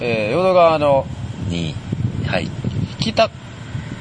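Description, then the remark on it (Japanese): Gusty wind rumbles and buffets the microphone throughout, a steady low roar under a man talking outdoors on the riverbank of the Yodo River in Osaka, beneath a road crossing a bridge, with car noise from that road blending into the background. “ご覧のようにというか聞いていただいているように風が、えーと、大変強く入ってまして、えーと、上にはこれなんかあの橋を渡る道路みたいなのが通ってまして大変車の音も入ってますけども”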